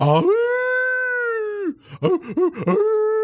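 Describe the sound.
A person howls like a dog: a long sustained rising note, then a few short yelping wavers, ending in another held howl. Loud, with no other sounds.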